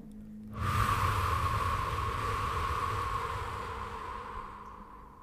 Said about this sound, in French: Inspirez profondément pour vous dynamiser. Soufflez fortement